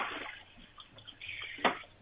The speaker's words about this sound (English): I just, sec, I've just got to get a drink of water. My throat's got not very good on radio, I know.